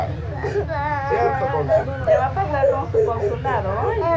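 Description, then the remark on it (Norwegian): Several children crying and wailing together in a detention camp, high wavering sobs rising and falling continuously, with a low murmur of other voices underneath throughout; the children speak Spanish, in a recording published by VG. “Og eh, VG publiserte jo også det lydopptakene fra, eh, av noen av disse barna fra denne leiren.”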